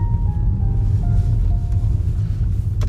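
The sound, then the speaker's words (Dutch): A car, apparently Marian's, drives by steadily, its deep engine rumble continuous and fairly loud throughout, with a faint high whine drifting over it and no voices. “Hé, dat lijkt wel de auto van Marian.”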